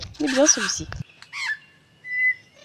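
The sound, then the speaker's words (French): A superb lyrebird sings a varied song mimicking other birds: a dense burst of chattering calls, then a brief rising whistle and a sustained clear whistled note, separated by short pauses. “un magnifique oiseau lyre, aussi appelé Ménure superbe. Il possède la faculté d'imiter le chant des autres oiseaux ou divers sons entendus.”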